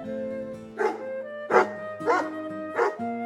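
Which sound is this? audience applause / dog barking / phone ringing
dog barking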